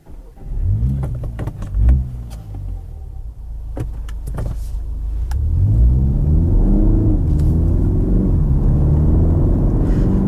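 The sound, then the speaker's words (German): A BMW car engine, started with a button on the center console, cranks and catches, rumbles at idle, then revs up into a steady, rising drone that stays loud, with no one talking. “Ich starte den Motor mit dem Knopf auf der Mittelkonsole.”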